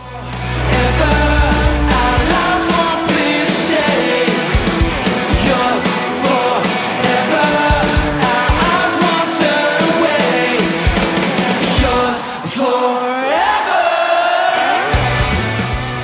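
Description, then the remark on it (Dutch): A loud, full-band rock chorus performed live at a concert in Miami, with many voices singing and shouting along over driving drums and guitars; it plays continuously, dipping briefly before surging back. “Het is gewoon een hele vet, ja, rock bijna.”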